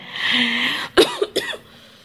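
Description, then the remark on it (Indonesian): Two or three sharp coughs in quick succession, rising abruptly out of a steady background hiss and fading quickly into quiet. “Bonus batuk.”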